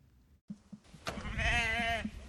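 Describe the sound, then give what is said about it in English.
A miniature Baby Doll Southdown sheep, about two feet tall, bleats once in Australia, a drawn-out, wavering cry lasting about a second, fairly loud, after a few soft rustling sounds in the background. “Baby doll Southdown sheep are growing in popularity in Australia, and it's not hard to see why.”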